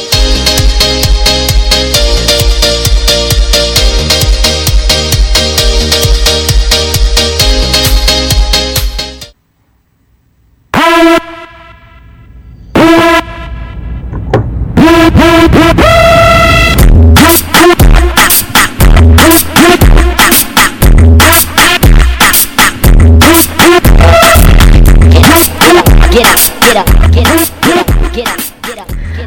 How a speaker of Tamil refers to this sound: அதற்கு முதல் ஒரு பாடலை கேட்போம்